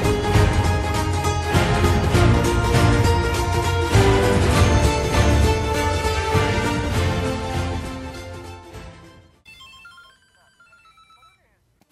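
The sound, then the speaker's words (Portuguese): Loud, busy electronic bleeps and tones from a small Game & Watch handheld game, part of a collection, play for about nine seconds, then fade into a few thin, sparse beeps before stopping. “curioso da minha coleção, que é este pequeno Game Watch.”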